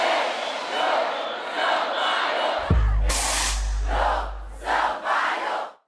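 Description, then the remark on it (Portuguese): A big concert crowd roars and shouts together in the warm-up chant that opens the show, then a deep bass boom hits and the cheering surges, followed by several loud rhythmic shouts in unison. “que virou tipo um hino mesmo, assim, a abertura do meu show, acontece em vários momentos do meu show esse grito.”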